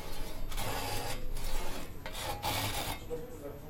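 Wood at a flute hole being planed to tune the flute: about five steady, rasping strokes in a regular back-and-forth rhythm, fairly loud and hissy, with no talking.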